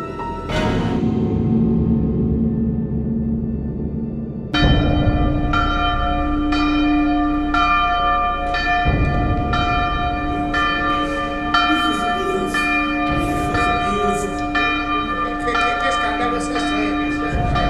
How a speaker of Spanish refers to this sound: Rápido, hijo. Da la alerta, toca la campana que usamos para llamar a los frailes.